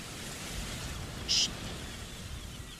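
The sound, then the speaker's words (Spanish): A steady, even wash of sea surf fills the whole stretch, low and continuous, with a brief high chirp-like sound popping out once near the middle. No one speaks. “En exclusiva, el ruido del mar.”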